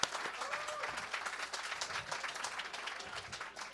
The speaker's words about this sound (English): Hey, are you guys ready for a great show? Get those hands and claps.